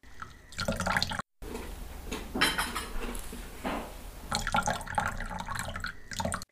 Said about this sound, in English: I remember later that evening when I went into the kitchen, there were still some dishes left in the sink, so I started washing them.